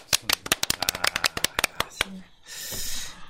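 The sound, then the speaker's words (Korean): A short burst of hand clapping congratulating a candidate on receiving the Democratic Party's sole nomination in Gyeongbuk: about twenty sharp, crisp claps in a quick, slightly uneven rhythm for two seconds, then stopping and giving way to a soft, steady hiss. “우리 박수 한번 쳐드리죠.”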